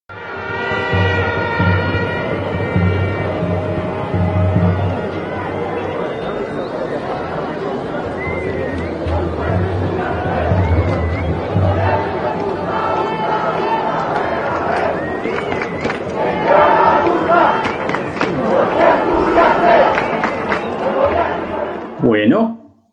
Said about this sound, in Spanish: Y eso nos hace la invitación a que los sonidos de la marcha vuelvan a ponerse al orden del día.